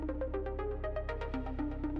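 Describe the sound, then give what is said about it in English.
A hotel telephone rings early in the morning with a quick, repeating electronic warble of bright tones, steady and moderately quiet over a low background hum, with no voices. “Suddenly, the hotel phone rings.”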